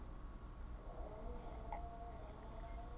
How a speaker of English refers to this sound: I know. I think Hunter's re rebelling and snoring even louder now. He's snoring even louder.